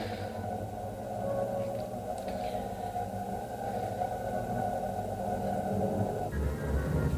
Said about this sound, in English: Uh, musique concrète is music constructed by mixing recorded sounds, which was first developed by experimental composers in the 1940s.